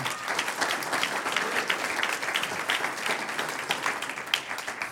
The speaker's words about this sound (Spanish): Un aplauso al Señor.